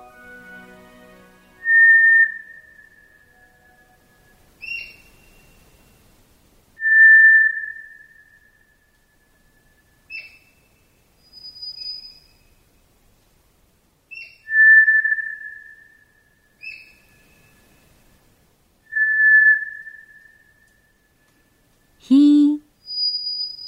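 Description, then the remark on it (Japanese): A White's thrush, a bird about 30 cm long, gives long, flute-like whistles, four of them spaced several seconds apart with lingering tails, in a quiet night forest in a hollow called Omatani. Brief higher notes are scattered between them, and a short burst comes at the end. “ひょうと余韻の長い笛のような音色虎ツグミの鳴き声です虎ツグミは日本のつぐみの仲間では最も大きく体長およそ30センチ鳩より少し小さな鳥です”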